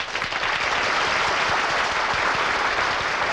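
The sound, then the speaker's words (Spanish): Dense audience applause fills the whole stretch, a steady wash of many hands clapping at once, loud, with no voices standing out. “¡Un aplauso!”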